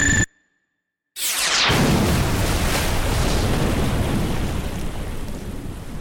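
An air-to-surface missile fired by an F-22 Raptor explodes, incinerating what remained of Iron Gate: a couple of brief electronic beeps, a moment of silence, then a sudden loud blast that turns into a sustained, roaring rumble, slowly easing off. No one speaks.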